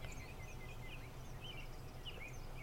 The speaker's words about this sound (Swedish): och väldigt mycket fåglar som kvittrar runt oss.